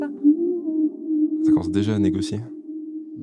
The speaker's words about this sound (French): c'était bien une chanteuse